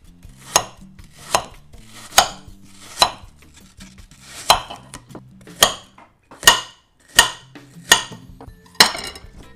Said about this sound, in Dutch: Ik heb alle ingrediënten weer voor me liggen. Laat ik beginnen met het snijden in hele kleine blokjes van mijn appeltje.